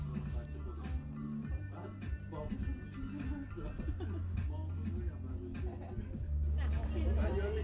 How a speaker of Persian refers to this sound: ای بابا اینجا هم که بلند صحبت میکنن